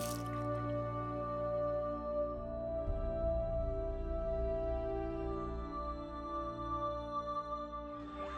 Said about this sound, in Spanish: Mis puños adoloridos abriendo el grifo y el agua envolviendo mis manos. Agua transparente sin color, que sale de la llave y corre por mis nudillos. Agua roja, roja sangre, que llena el lavatorio y sigue su camino hacia la cañería.